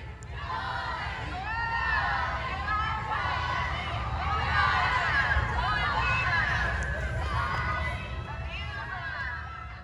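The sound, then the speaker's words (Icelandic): A large crowd of fans gathered outside a courthouse cheers and shouts continuously, many overlapping voices rising and falling in a dense outdoor roar with no pauses, loud throughout. “fagnandi honum með rópum og stuðningsköllum á meðan hörd er hætt og púið niður”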